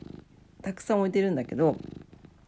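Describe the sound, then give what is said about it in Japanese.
A pet cat named Chii purrs in a steady, rhythmic rumble that runs through the whole moment, while a person laughs and speaks over it. “地位は相変わらずゴロゴロ言ってますけれども”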